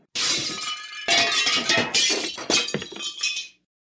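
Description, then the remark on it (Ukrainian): In a kitchen, a large earthenware bowl used for grinding poppy seeds crashes to the floor and shatters as a startled woman drops to the floor, followed by a scattered rattle and clinking of pieces settling over a few seconds, loud, with no voices. “Щось гепнулося і заторохтіло у кухні.”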